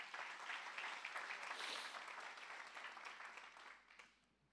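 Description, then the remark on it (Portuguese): An audience gives a morning applause to Jesus, clapping together in sustained, dense applause, steady and full for several seconds before tapering off at the end, with no voices standing out. “Dê um aplauso a Jesus nessa manhã.”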